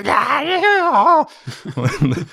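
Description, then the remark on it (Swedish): A person imitates the scream of a goblin that a creature dives down on, with a loud, shrill, wavering wail of about a second, followed by brief chatter or laughter. “Ser hur den dyker ner mot en av de här goblinerna och ni hör den skrika.”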